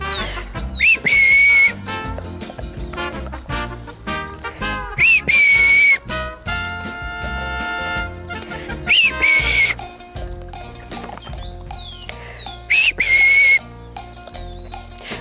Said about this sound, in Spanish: Así que cuando estés en casa vas a tomar las galletas favoritas de tu peludo y cuando él esté cerca de ti vas a empezar a silbarle cada vez que le vayas a dar una galleta de esta forma.